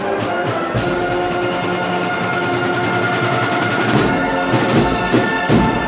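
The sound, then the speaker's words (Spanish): A marching band, the musicians of the San Benito musical group with Nuestra Señora de la Encarnación, plays a procession march at La Campana in Seville on a Palm Sunday evening: loud, sustained brass chords over steady drum beats, with no voices. “Bueno, pues ahí, termina. la marcha.”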